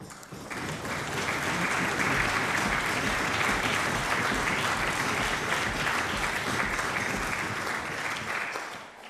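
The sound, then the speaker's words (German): Sustained applause from the Freiburg city council, approving a July 2015 council declaration on caring for refugees, a dense patter of many hands clapping steadily for about nine seconds, loud throughout and tapering slightly at the end, with no voices over it. “Ich werte diesen Beifall als allgemeine Zustimmung des ganzen Hauses.”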